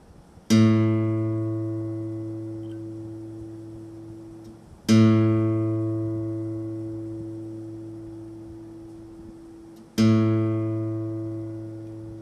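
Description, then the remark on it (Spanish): A reference note A sounds three times at even intervals, each struck cleanly and rich in overtones, then slowly fading as it rings out. No voices, just the tone alone. “En este caso, con la guitarra, vamos a escuchar la frecuencia 440, que sería la nota de La.”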